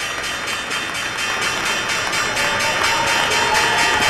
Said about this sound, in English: That is the stock exchange bell